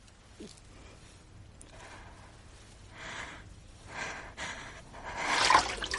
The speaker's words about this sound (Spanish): Se apoya sobre la puerta y llora angustiada.